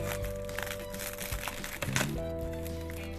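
Dry, brittle cracking and crinkling as tea leaves are torn by hand from a large pressed tea cake (chabing) to be put in for brewing, a continuous crunchy rustle with a few sharper snaps, no talking.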